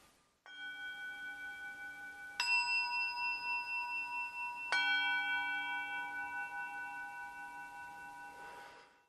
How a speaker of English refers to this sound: And even though there are many natural sounds, I will sometimes invite the sounds of the bells just to bring a variety of sounds into the room.